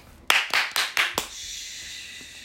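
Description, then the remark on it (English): Five sharp hand claps in a quick, even rhythm, each a bright crisp snap, followed by a faint lingering hiss once the clapping stops. “It literally sounds like clapping.”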